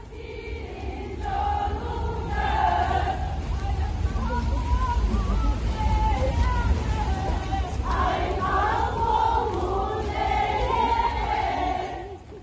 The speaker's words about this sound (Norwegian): Lyden vi hører her, er fra en eh, video hentet i, fra byen Jakutsk. Eh, hele situasjonen er veldig spesiell. Eh, det er ganske tomt på torget først, og så møter opp kvinner. Det kommer flere og flere kvinner, og de roper først en del protestord.